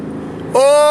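A Mercedes G-Wagon (G-Wag) SUV engine rumbles low at idle, then abruptly revs up into a loud, steady roar with a rising whine for the rest of the brief clip.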